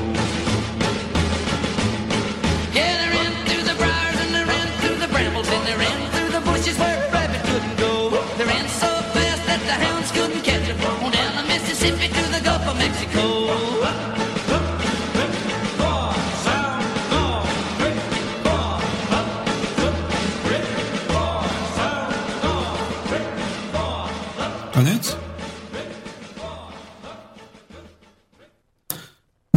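A folk-country song plays with a male voice singing over a steady, bouncy rhythm and bass, full and loud throughout, before the music stops and fades out near the end.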